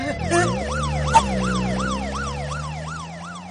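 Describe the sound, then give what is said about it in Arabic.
A police car siren wails in quick, repeating rising-and-falling sweeps, loud and steady, with a low engine rumble underneath and no voices. “نهرب نهرب الله الله الله ده في سيارة شرطة اهرب”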